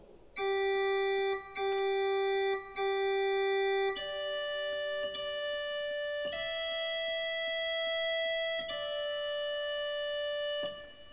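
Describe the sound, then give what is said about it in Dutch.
A choir organ plays the soprano in ripieno line as a slow melody on a bright tierce stop, each sustained note held a second or two before stepping to the next. Clear and steady, with no voices. “Zojuist hoorde u dat gespeeld met de terts van het koororgel.”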